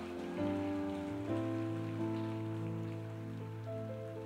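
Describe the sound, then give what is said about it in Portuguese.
An audience applauding the Lord during a sermon in a steady, dense wash of clapping that carries on throughout, layered over sustained, ringing keyboard chords. No one speaks. “Então, pode aplaudir o Senhor.”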